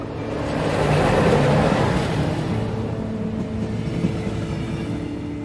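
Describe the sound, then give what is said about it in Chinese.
A steady, loud rumble of a train running on rails, with a low droning hum and dense rattling noise that swells slightly early on and then holds even throughout. No one speaks. “当时我哥背着那个大包啊，大行李包，背不动一样，然后我就抬着，我们一起就急急团团的都上了火车。”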